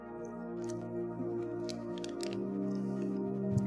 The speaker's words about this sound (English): Drink water real quick.